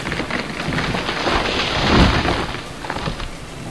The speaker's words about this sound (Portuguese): E assim a batalha eclodia próximo vocês, enquanto à frente de vocês vinha Ilha, com seu pequeno esquadrão de uma forma bem incisiva, até que um raio cai bem à frente de vocês, derrubando uma enorme árvore que estava no caminho.